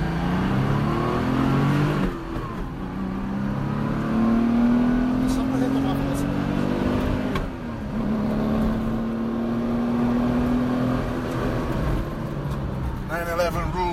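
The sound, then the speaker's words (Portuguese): A car engine revs loudly, its pitch climbing in two long rising pulls, one after another, over a steady rumble of traffic in a jam where a truck has crashed and broken down. “Ih, rapaz, pegamos o trânsito.”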